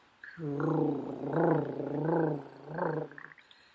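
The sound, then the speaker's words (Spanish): A voice imitates the rattling, snore-like stertor breathing of people with respiratory conditions, a low raspy growl from the chest and nostrils held for about three seconds in a few swelling pulses, fairly loud with no other talk. “Saben lo que es ese estertor, cómo, cómo se siente, cómo se escucha. Y es un ruido como un ronquido así,”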